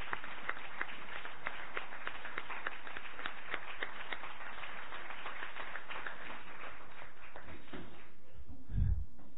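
An audience gives special applause for the director at the opening event of the winter Festa Major in Sant Fritós de Bages, steady, dense clapping that holds for about eight seconds, then quickly dies away, ending with a brief low thump.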